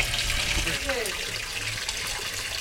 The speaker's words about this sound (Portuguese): Mas nós vamos por baixo agora, porque eu quero ver o rio que passa ali. Olha o rio aqui aparecendo.